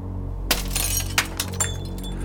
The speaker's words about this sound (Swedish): Jag vill minnas att jag slog sönder balkongdörrens fönster med armbågen.